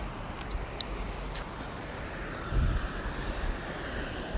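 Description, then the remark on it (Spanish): Steady outdoor ambience recorded while cycling near a river on a short bike trip with a group, a broad rush of wind and moving water with a few faint ticks and a brief low rumble partway through; no one speaks. “hoy es martes 15 de octubre de 2019, cerca del río en bicicleta.”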